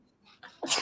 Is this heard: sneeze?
yes